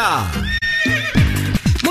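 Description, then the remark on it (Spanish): A horse whinnies loudly at the Camarero racetrack (hipódromo), its shrill call rising and falling in quavering waves, with a few hoof clip-clops mixed in underneath. “Con las orejitas del caballo Alvin Díaz. Alvin Díaz. Directamente del hipódromo cabarero para Nación Z”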